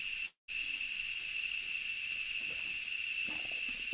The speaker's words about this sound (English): We have these cicadas here right now, and they're really loud. I don't know if you if they come through the microphone as loud as they come through my ears